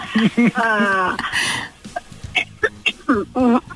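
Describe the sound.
A woman coughs once, a short breathy burst, surrounded by voiced, laugh-like vocal sounds and brief bits of talk.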